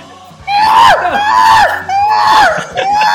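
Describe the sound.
A person imitates an ape's scream: three loud, shrieking calls in quick succession, each rising and sliding down in pitch, like a chimpanzee screech.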